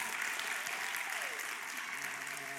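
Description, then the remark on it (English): A church audience applauds news that another church is merging with theirs and donating 13 and a half acres of land and a 10,000 square foot building. A dense, steady wash of many hands clapping at an even loudness throughout, with faint indistinct voices mixed into the noise. “So let's applaud to that.”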